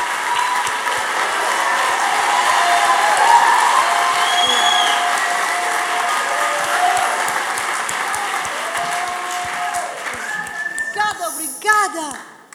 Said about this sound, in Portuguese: Palmas.